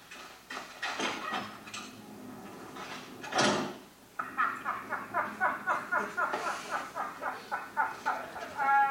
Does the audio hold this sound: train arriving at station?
no